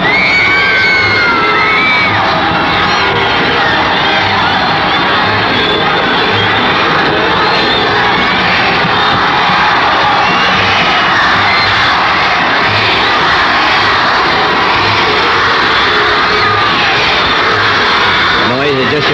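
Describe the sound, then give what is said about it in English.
A huge stadium crowd on the west side of a darkened stadium roars continuously, thousands of voices screaming and cheering in a dense, sustained wall of noise with no letup across the whole stretch. “crowd on the west side.”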